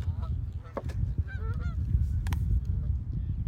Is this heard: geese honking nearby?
yes